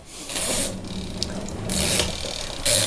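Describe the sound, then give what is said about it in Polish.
Tap water runs with a steady hiss, surging louder in a few short rushes, with faint mechanical clicks as the faucet is handled and shut off. No one speaks. “I się zakręcam wodę. Umywam rękę i jedziemy.”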